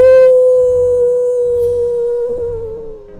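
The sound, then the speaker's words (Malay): A single long, steady howl held at one pitch for about three seconds, fairly loud, apparently a human voice imitating a dog howling, fading slightly at the end. “Tiba-tiba dekat luar bilik kami ada bunyi anjing yang menyalak dan bunyi tu betul-betul datang kami rasakan dekat dengan depan pintu bilik hotel itu”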